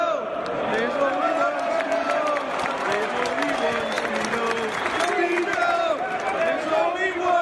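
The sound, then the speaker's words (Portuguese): A large crowd of Leeds football fans sings the chant "There's Only One Speedo" for Gary Speed in unison, a steady, loud melodic roar of many voices rising and falling in pitch, with scattered claps and shouts mixed in throughout. “Vamos ouvir a musiquinha There's Only One Speedo, a musiquinha pro Gary Speed, que morreu muito jovem de forma trágica e é sempre lembrado pela torcida do Leeds.”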